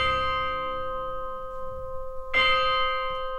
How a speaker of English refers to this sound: And the movement is set at midnight in a graveyard. So we've got all these spooky sounds that the composer is incorporating. We've got bells tolling.